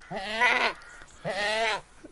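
goat bleating

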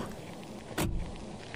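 car door opening

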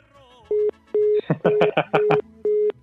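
busy tone

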